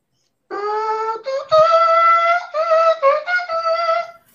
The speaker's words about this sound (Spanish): Eh, oye, Alfredo, hazme un favor, pon, la trompeta.